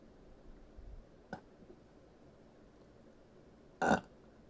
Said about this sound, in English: Wait, I'm so sorry. I'm gonna burp.